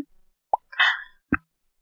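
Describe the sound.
Someone makes mouth pops imitating a fish: a sharp wet pop, a brief bubbly gurgle, then a second pop, with no talking around them.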